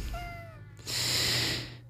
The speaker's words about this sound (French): C'était le chat.